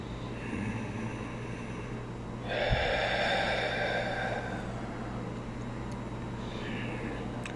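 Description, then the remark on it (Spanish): A slow, deep abdominal breath drawn in, a long airy inhale lasting a couple of seconds, followed by quiet and the start of another breath, with no talking. “Una respiración abdominal como cuando estamos dormides.”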